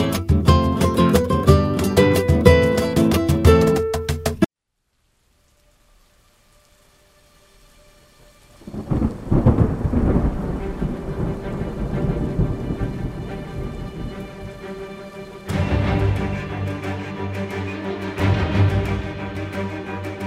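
A short burst of music cuts off into near silence, then steady heavy rain rushes in with deep rumbling thunder, the downpour swelling louder toward the end.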